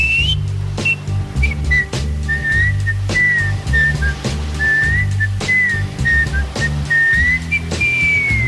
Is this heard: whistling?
yes